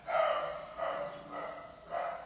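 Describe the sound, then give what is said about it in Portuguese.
A small dog barks four times in a steady, evenly spaced series, with high, sharp yaps. The barks are moderately faint, and no one speaks. “Olha o cachorrinho.”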